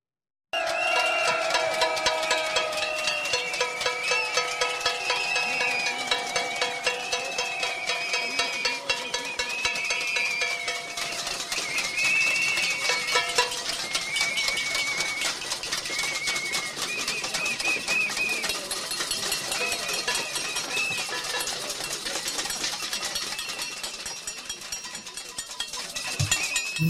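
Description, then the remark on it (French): Protesters banging pots and pans outside a factory during a visit by President Macron: a dense, continuous clatter of many pots and pans banged at once by a crowd, loud and relentless for the whole stretch, with shrill whistles piercing through the metallic din. “Voilà pour ce concert euh, de casseroles.”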